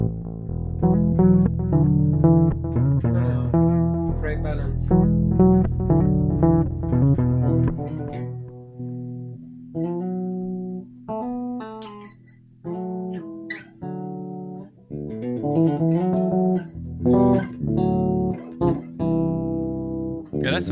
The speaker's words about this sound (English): Let me see. Two, two. Ba- can you hear my bass guitar? Yeah.